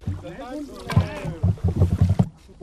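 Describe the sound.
A newly built, high-sided paddled boat with a crew of about twenty pushes off from a pier on its first voyage, with a run of rhythmic knocking and splashing paddle strokes while voices call out over the water.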